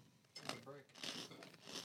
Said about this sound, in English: Take a bite out of it because it's a big. Oh, it's crunchy.